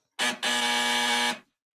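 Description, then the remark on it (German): A buzzing doorbell rings twice: a quick short buzz, then a longer steady one of about a second, harsh and loud, with no voices over it. It is rung by someone arriving home who cannot find the keyhole. “Ich klingel, weil ich finde das Schlüsselloch nicht.”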